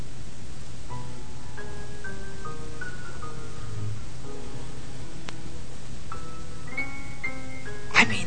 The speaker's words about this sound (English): This is East Side music. I mean, you can almost taste the ice cubes. You can almost taste the ice cubes. And all that scotch. Listen to this. This is pure East Side music. This is not jazz. It's not Beethoven.